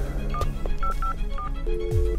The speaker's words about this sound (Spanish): ¿Puedo llamar? Eh, sí, sí, marca y apretá el verde.